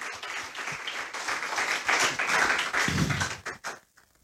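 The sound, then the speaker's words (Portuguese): An audience applauds the Lord together after a prayer, a dense wash of many hands clapping steadily for about three and a half seconds before quickly thinning out into a few scattered claps and silence. “Aplauda o Senhor, pode se assentar.”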